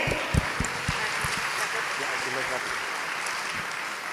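Steady applause from the women in the audience: a dense wash of many hands clapping at a fairly even level for about four seconds, with a few sharper claps standing out near the start.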